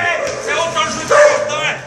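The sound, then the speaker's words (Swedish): A dog barks aggressively while attacking on a street, loud and nearly continuous over a couple of seconds, with agitated yelps tangled in and raised human voices mixed underneath, as a man tries to walk away and a woman follows and hits the dog. “Men det är ju en hund som attackerar ja. också, det är därför det är massa voffande.”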